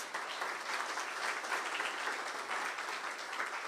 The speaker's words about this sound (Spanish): Bueno, entonces démosle un aplauso a, a Jesús.